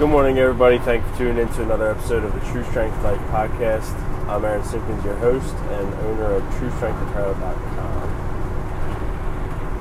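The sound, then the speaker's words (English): Steady low rumble and hiss of a car interior while driving on the way to work, constant throughout and sitting beneath a man talking the whole time. “Sorry for the background noise. Obviously, I'm driving on my way to work and uh, didn't wake up early enough to record it in the morning before I left.”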